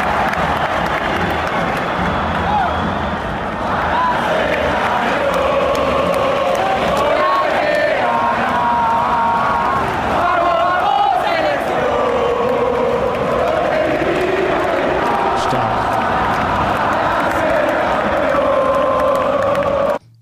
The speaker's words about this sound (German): danach musst du mal auf die Atmosphäre achten, wie schnell die argentinischen Fans das Stadion akustisch im Griff hatten.